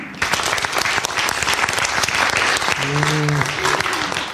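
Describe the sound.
Steady, dense audience applause for a question from the audience, many hands clapping at once, loud and continuous throughout, with a brief low voice or hum emerging partway through.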